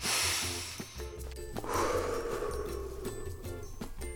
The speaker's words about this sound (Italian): Avete sentito l'aria che entra nel naso, poi scende, riempie i polmoni. Siamo vivi.